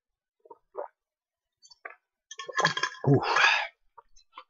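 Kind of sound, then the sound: food or drink, speaker drinking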